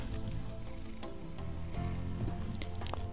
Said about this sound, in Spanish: Les dejo unos ronroneos de mi gato que está aquí al lado mío.